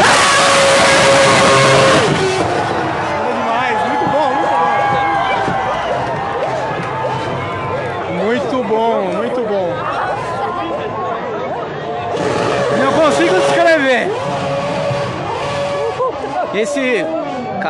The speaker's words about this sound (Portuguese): carro eu acho que é um V8, porque é muito alto o som, é muito alto.